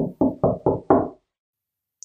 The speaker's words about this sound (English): And the day comes as you're you're sitting in your room uh, and you have your your room is dimly lit, and you hear that pop, see that light, and you hear the knock at your door.